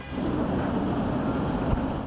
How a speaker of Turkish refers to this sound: İzmir'de de fırtına hayatı olumsuz etkiliyor. İzmir Valiliği kuvvetli fırtına nedeniyle motosiklet, motorlu kurye ve elektrikli skuterların trafiğe çıkışının yasaklandığını duyurdu.